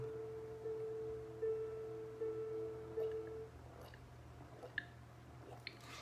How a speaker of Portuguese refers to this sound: Vamos lá, deixa eu beber um pouquinho de água mas separe sua garrafinha com água. Olha aqui a minha garrafinha com água, o copo com água.